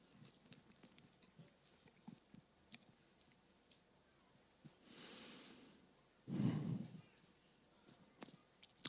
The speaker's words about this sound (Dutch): Neem even een slok water.